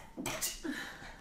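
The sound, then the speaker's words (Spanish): One quick sneeze, a brief breathy catch followed by a sharp hissing burst, not loud, with no talking around it. “Fue uno solo, qué raro.”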